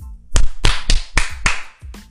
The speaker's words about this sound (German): Erstmal ein Applaus.